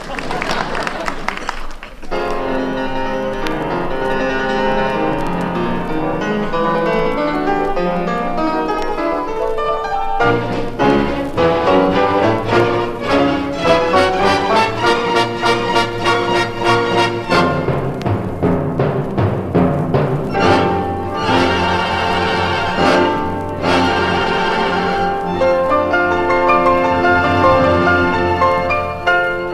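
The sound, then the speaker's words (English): A recording of a piano concerto by Gershwin plays loudly and continuously, with full orchestral chords, sustained tones and rapid rhythmic passages of struck notes, and no voices over the music. “Now I'll play another one.”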